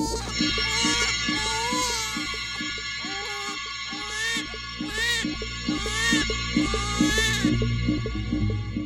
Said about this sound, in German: Diese Babylaute setzen den Komplex Maria mit dem Kinde in Bezug zum Alltag von jeder Mann und jeder Frau eine künstlerische Betonung von Leben und Geburt.